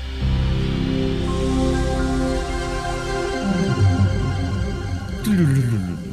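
A computer startup sound, the Windows NT Workstation 4.0 with Microsoft Internet Explorer chime: layered synthesizer tones swell for several seconds, then slide downward into a closing chord, clear with no talking.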